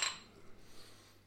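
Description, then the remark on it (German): A single bright clink of glasses touching in a toast, heard right at the start, then fading into a faint background hum with no talking. “Wollen wir anstoßen”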